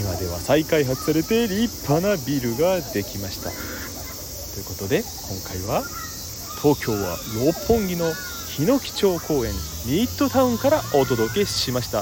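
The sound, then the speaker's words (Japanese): A steady, shrill drone of cicadas in a city, on the former site of Japan's Defense Agency, hums continuously in the background while a man talks over it throughout, the insect chorus constant and moderately loud. “都会とは思えないこのセミの鳴き声聞き納めしてくださいね”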